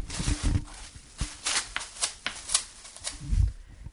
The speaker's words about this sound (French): Moi, je n'en ai pas mis trop parce que je veux pas gâcher sur l'intégralité du pied et enrouler dans du cellophane, ce qui fait que dès que je me déplace, mes pieds font ce bruit-ci.